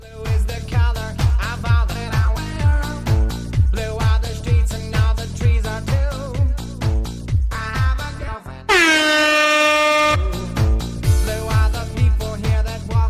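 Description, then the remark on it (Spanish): A loud, sustained basketball final buzzer horn blares for about a second and a half at the end of a Barcelona versus Unicaja game at the Palau, cutting across driving rhythmic music that picks back up once the blast ends. “Cero, se acabó. Bocinazo final.”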